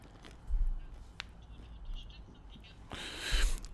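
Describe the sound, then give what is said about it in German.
Crunching as someone bites into and chews a pretzel: a few soft crackles and a sharp click early, then a louder, dense crunch near the end. No one speaks. “Ja, derzeit halt nehme ich noch ein bisschen von der Hacknerbrezel.”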